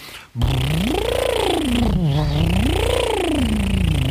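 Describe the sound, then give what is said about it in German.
A voice does a buzzing lip trill for a vocal warm-up, sliding smoothly up and down in pitch twice in a steady, loud siren-like sweep with no talking. “Damit, damit lockerst du aber die Lippen maximal, nicht die Stimmbänder.”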